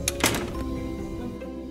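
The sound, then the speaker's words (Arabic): A door shuts with a couple of sharp knocks, a quick double impact followed by a lingering low ringing hum as it settles. “ثم سحبت كريمة أدهم إلى الداخل وأعطت مرتاحا عميانا صغيرا وأطبقت الباب”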